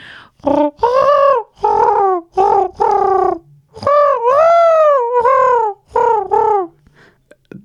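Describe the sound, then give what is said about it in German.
A person imitates a pigeon's cooing: a string of loud, throaty hoots, some short and clipped, others longer with a rising and falling pitch, delivered in an uneven rhythm before a brief pause. “Ähm, weil ich finde, wenn man Tauben nachmachen müsste, also den Ruf, mhm.”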